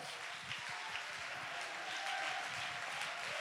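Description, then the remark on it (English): An audience clapping their hands in praise to God during a church sermon, a dense steady wash of many overlapping claps that stays at an even loudness throughout, with no clear rhythm and no voices standing out. “Clap your hands, lift your voice, give God the praise.”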